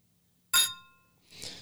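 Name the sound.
glasses clinking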